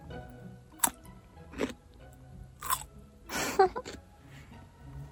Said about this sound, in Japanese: 続いては、こちらの、じゃんきゅうりリリをいただきます。うんすごい、みずみずしい。すごいいい音。